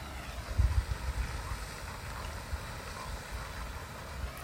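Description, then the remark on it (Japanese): A steady, continuous rush of water spraying from a jet into a pond, a broad hissing splash with some low rumbling gusts near the start, and no one talking. “最後は、えー、この池の水しぶき、水しぶきっていうか何なんか噴射してるんですよ。”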